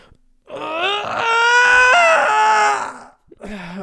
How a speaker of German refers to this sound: Aber worauf ich eigentlich hinaus wollte, ist, dass ich morgens, wenn ich gähne, dass ich da halt, ich gähne halt nicht normal, sondern ich mache dann immer so